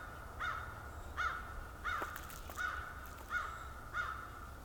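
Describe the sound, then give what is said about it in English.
Crows caw from a distance, six short nasal calls at a steady pace of roughly one every second, rising clearly above a low, constant background rumble with no talking. “These crows are way further away and way louder.”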